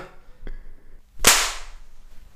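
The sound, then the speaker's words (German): A single sharp, loud hand clap made to sync a camera rings out, its bright burst trailing into a short room echo, preceded by a fainter tap. “einmal so einen miesen Klatscher, wo dann der ganze Putz von der Decke fällt gefühlt.”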